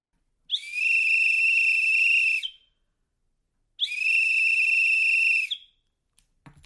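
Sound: emergency whistle being blown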